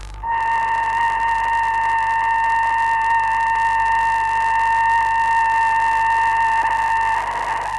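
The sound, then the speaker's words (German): Radio signals from the Sputnik 2 satellite, recorded by the university observatory in Bonn: a steady, unbroken electronic tone with bright overtones hums through a bed of radio hiss, holding at an even loudness for several seconds. “Hier noch einmal die Signale des Sputnik 2, wie sie heute aufgenommen wurden von der Universitätssternwarte in Bonn.”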